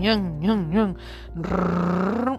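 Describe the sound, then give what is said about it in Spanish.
A voice imitates a racing car engine: three quick rising-and-falling revs, then a long, loud, buzzing drone that climbs slightly before cutting off. “Ellos también utilizan estos sonidos binaurales, porque por ejemplo estás jugando que tú eres corredor, vas en un carro de carrera y te ponen el sonido como que estás”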